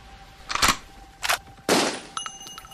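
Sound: gunshot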